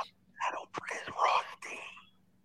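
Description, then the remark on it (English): Someone whispers in front of a live audience of 2,000 people: breathy, unvoiced bursts of speech in a few short phrases, fairly quiet, over a faint steady low hum. “I'm about to whisper something to you, right?”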